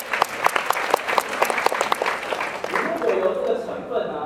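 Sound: audience applause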